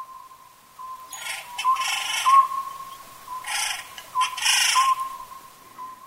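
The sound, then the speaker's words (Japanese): An Oriental scops owl calls in short, repeated tonal hoots, fairly faint, over a steady high hum, with bursts of hissy noise in the background. “この葉ずくは「かつては高尾山など東京の郊外の山でも聞くことができましたしかし今では数が減ってしまい湯西川のような山奥に行かないと聞くことができなくなりました”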